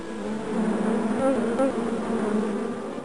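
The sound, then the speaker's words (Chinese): A swarm of dozens of bees, drawn by the sweet scent of flowers and fruit, gathers and buzzes in a dense, continuous drone, many overlapping low humming tones wavering slightly in pitch, steady and fairly loud throughout, with no voices. “数十只蜜蜂在多奇的身边聚集了，它们都是被多奇装饰在刺上面的花跟果实，那种甜甜的香味吸引过来的。”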